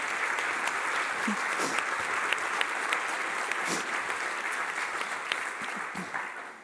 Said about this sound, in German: Auf jeden Fall möchte ich erstmal für den Einsatz von euch beiden jetzt sehr, sehr danken. Ein Applaus bitte für die beiden Podiumsteilnehmer.